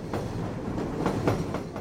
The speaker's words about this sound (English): I was a kid, I laid awake at nights and heard the sounds of trains.